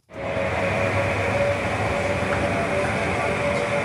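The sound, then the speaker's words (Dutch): A Fisker Karma hybrid sports car, recorded in the garage at BNR, gives off a steady whirring drone, a thin tonal whine riding over a broad rumble at constant loudness for a few seconds, with no one talking. “Maar weet jij nog de Fisker Karma?”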